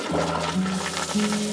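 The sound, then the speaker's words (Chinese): A toilet flushing: a steady, fairly loud rush of water lasting about a second and a half, with a low droning hum underneath that steps up in pitch partway through. No one speaks. “马桶的冲水声之后，小燕离开了厕所，回到了教室”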